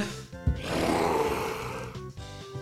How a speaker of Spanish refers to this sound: Ese ya trae hambre también, ese sí suena más como un zombie.